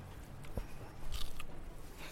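A close, crisp bite into a pear, a sharp crunch followed about half a second later by a few softer wet crunching chews, with no talking.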